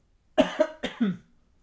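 A quick fit of four harsh coughs in close succession, the last one slightly drawn out, heard up close with no talking around them.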